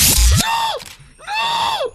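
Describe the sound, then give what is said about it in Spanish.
The YouTuber El Rubius lets out two loud, high-pitched shrieks in quick succession while playing the videogame Paranormal Activity, each sustained and then dropping in pitch at the end, after a brief harsh burst of noise at the start. “esto sí es un chillido.”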